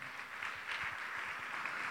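A church audience claps together to applaud the Lord in a steady, dense patter of applause that fills the room, sounding soft, with no voices rising above it.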